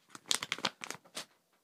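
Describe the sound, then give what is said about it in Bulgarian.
Packaging being torn open: a quick run of sharp, crinkly, papery rips and crackles in uneven bursts, fairly loud, fading out after a second or so, with no one talking. “Как се отваря това по дяволите?”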